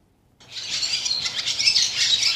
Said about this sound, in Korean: 아, 제비 소리입니다. 제비. 네, 강남 갔던 제비.